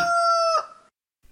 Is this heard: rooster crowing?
yes